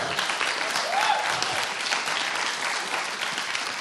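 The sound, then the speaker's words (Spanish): Sustained applause from an audience at a live music performance as the band's pianist is introduced. A dense wash of many hands clapping at a steady, even volume for the whole stretch, with no voices standing out above it. “Un aplauso, por favor.”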